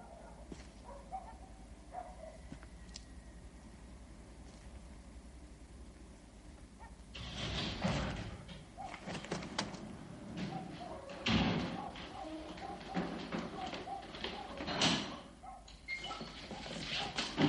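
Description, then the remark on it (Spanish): After several seconds of low, quiet background, a door opens and soldiers throw a man down the entrance stairs into the street puddles at night, giving a run of loud, dull impacts and scuffling bumps that continue irregularly to the end. “Se abre la puerta. Unos soldados arrojan a Lorenz por las escaleras de acceso y caen los charcos de la calle.”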